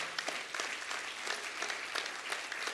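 An audience claps steadily in a dense round of applause, a continuous crackle of many hands with scattered sharper claps, sustained at an even level throughout.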